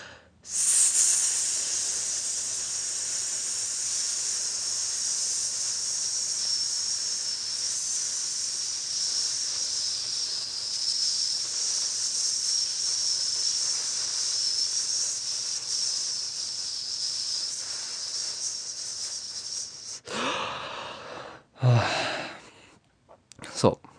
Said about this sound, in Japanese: このスっていう息を吐くときにですね、できる限り細く、なるべく同じような息の量をスーって吐けると、だんだんこう、応用が効いてくるわけですね。私とあなたどちらが長く息が吐けるか競争です。